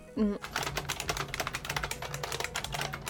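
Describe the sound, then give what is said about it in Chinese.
Fast, continuous typing on a 1986 IBM Model M buckling-spring keyboard, a recording from Wikipedia: a dense run of loud, crisp clacks with a slightly metallic ring, keystrokes tumbling quickly in an uneven rhythm for about three seconds. “嗯，这个因为我们是一个音频节目啊，我们可以就是在里面插一段这个 IBM Model M 是八六年的，可以插一个 Model M 的这个声儿给大家听一下。”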